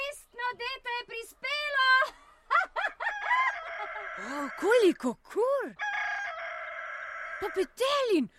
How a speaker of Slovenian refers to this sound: Ja, pravi petelin. Pa kaj? Ja, še nikoli nisem videl živega petelina.